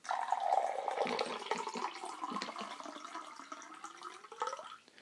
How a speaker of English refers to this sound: We're sitting here with a, a hot pot of coffee. We're going to pour it out now. We're going to have a little sip, so we are.